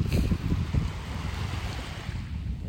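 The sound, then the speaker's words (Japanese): Outdoor shoreline ambience at the water's edge of Yamanoshita Seaside Park beach: steady wind buffeting the microphone with low rumbling gusts, over a continuous wash of breaking waves. No voices. “山ノ下海浜公園からこんにちは！”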